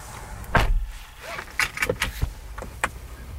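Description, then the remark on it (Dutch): A series of sharp mechanical clicks from a button being pressed repeatedly inside a Ford Mustang Mach-E electric car: one loud click, then five or six lighter ones at an uneven pace, with no talking. “Ik blijf maar op die knop drukken.”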